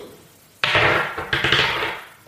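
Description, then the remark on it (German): Dice are rolled a second time, clattering sharply across a hard surface, starting with a sudden loud hit, then a second burst of rattling and tumbling before fading out after about two seconds. No voices. “dann bitte noch ein zweites Mal würfeln.”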